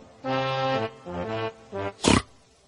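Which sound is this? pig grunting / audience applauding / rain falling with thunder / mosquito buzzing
pig grunting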